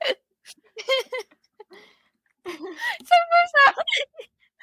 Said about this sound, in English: I've got the hiccup.